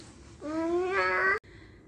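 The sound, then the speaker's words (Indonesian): A baby who has just woken up babbles in one sustained, rising vocal stretch lasting about a second, bright, then breaks off abruptly against a quiet background. “karena udah ada para bayi sudah bangun kita cukupkan dulu ya.”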